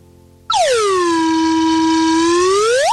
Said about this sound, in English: Slide whistle.